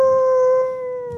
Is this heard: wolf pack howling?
yes